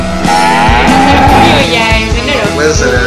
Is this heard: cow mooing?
yes